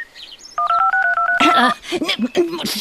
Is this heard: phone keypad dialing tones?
yes